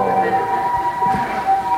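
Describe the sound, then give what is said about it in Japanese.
An ambulance siren wails steadily from outside near a hospital, its sustained tone holding throughout at a moderate level, with a faint murmur of voices underneath. “救急車がすみませんちょっと救急車が病院だもんね確かに”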